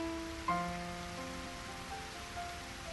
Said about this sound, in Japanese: そこへ、ダメ押しの雨。それも大粒で激しさを増す。